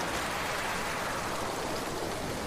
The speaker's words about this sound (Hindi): इस बीच आंधी और बारिश ने अपना तांडव रूप मचा रखा था